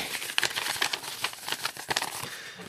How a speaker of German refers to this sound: Ich stecke den Brief jetzt gleich in einen Umschlag und werfe ihn Bärbel in den Briefkasten